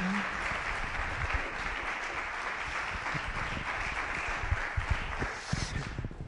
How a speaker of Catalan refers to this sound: Un aplaudiment per ell i per tots els que han vingut amb ell.